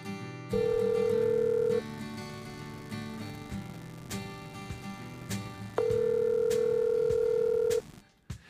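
Two long, steady ringback tones sound on an outgoing phone call placed from a radio studio to guests, each lasting about a second or two, separated by a pause with faint background music underneath.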